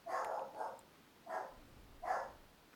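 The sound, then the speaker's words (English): A dog barks four times in an irregular sequence, a quick pair followed by two spaced single barks, sounding muffled, with no voices. “the dog's gonna make it onto these recordings.”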